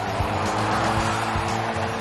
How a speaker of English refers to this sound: Unlike most schools, students here are encouraged to speed through the school parking lot in their kitted out cars.